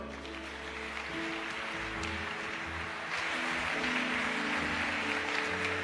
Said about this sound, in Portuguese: Pode aplaudir o Senhor?